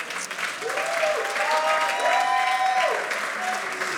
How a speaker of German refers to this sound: Super, komm mal nach vorne, Applaus.